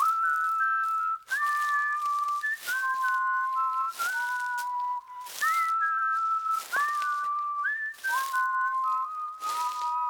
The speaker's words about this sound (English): The story was great and hearing that with the whistling intro, with the walking through oh, the yeah. woods, because you were on the beginning, and you didn't hear any of that.